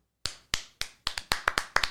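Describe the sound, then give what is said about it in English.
A single person claps, about ten sharp, bright claps starting steady and then quickening into an uneven flurry, each one snapping out and fading quickly with no voices. “I'll clap. I'll clap. You're welcome.”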